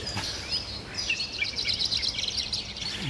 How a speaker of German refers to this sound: lass mich raten, vielleicht ist es ja das Vogelgezwitscher im Walde.